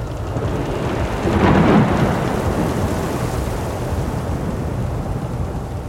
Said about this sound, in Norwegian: De mørke skyene kom nærmere og nærmere, og vinden begynte å ule rundt dem. Bølgene vokste og vokste, vinden rev og slet i seilene, og de skjønte jo etter hvert at dette ikke var noe vanlig uvær. Det var i ferd med å blåse opp til full storm.